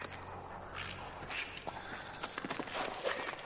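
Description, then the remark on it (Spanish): In the centre of a castle courtyard, a man makes the king's horse kneel and the king dismounts and takes a few steps: hooves clop and shuffle alongside footsteps, a steady run of soft, irregular thuds and scrapes over a low background hum, with no talking. “Un hombre hace que el caballo se agache. El rey desmonta y da unos pasos hacia Reinaldo, que se inclina ante él con los brazos abiertos.”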